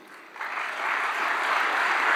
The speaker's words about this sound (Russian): Пока массовка аплодирует